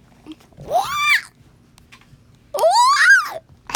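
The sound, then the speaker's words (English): A voice imitates a monster's shriek twice, each cry loud and strained, sweeping up in pitch then sliding back down, with a short quiet pause between them. “and it makes the loudest shriek once again.”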